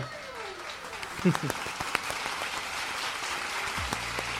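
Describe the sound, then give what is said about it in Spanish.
A few seconds of steady applause, a dense patter of clapping hands with some sharper individual claps, while voices murmur and call out underneath. “Vamos, los aplausos.”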